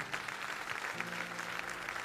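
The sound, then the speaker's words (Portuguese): A crowd applauds Jesus for his word, many hands clapping in a dense, even patter at moderate loudness, with a low sustained tone humming underneath partway through. “Você pode dar um aplauso a Jesus pela palavra dele?”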